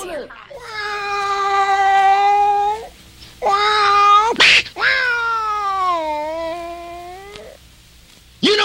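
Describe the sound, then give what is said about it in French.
A voice imitates a cat in a 1953 blues song, letting out three long, drawn-out meowing wails with bending pitch, the last one stretching and sliding downward, broken by a brief sharp noise between them. “ses miaulements de chat qui défraient la chronique en 1953”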